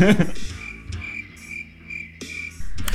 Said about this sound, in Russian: Это отличный повод для семпла со сверчками.